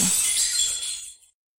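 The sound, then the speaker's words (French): A loud crash of dishes broken through rough, brutish handling, a bright, crackling shatter with high ringing fragments that tumble and fade out within about a second. No voices. “Sans prêter la moindre attention à sa nièce, il prit possession des lieux, se vautrant sur les coussins, abîmant les tapis et la vaisselle avec ses manières brutales.”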